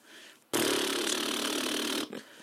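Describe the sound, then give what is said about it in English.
A voice imitates a drum roll with a loud, buzzing, flapping lip trill, held steadily for about one and a half seconds before stopping abruptly. “That's more of a fart roll, really.”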